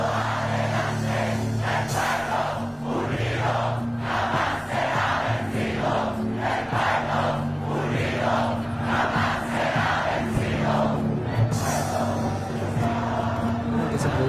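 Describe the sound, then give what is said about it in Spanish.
A large crowd chants in chorus at a protest march during the estallido social, many voices shouting together in a loud, rhythmic, repeating cadence over a steady low hum, with no individual speaker standing out. “ese coro que se armaba de repente en las marchas, igual te daba como...”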